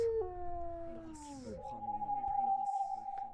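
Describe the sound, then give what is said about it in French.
A wolf gives one long, loud howl that slides downward and then holds a steady, sustained pitch, with a few faint breathy bursts in the background. “Vous et vos loups qui veulent prendre ma place.”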